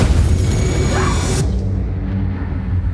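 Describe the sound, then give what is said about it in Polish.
A loud, roaring shock-wave explosion in a film scene blasts across the full range for over a second, then its hiss cuts off abruptly, leaving a heavy low rumble that continues steadily to the end. “I kiedy oni wszyscy oglądają sobie w telewizji relacje, okazuje się, że ta fala uderzeniowa potrafi ich tak przeorać, że dom będzie cały w kurzu, delikatnie mówiąc.”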